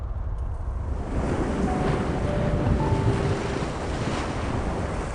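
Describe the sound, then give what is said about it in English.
Ocean waves wash and crash below a ship in a steady, roaring surge, mixed with gusting wind noise, with gentle swells rising and falling throughout and no voices. “The figure walked to the edge of the ship overlooking the mast to the waves crashing below.”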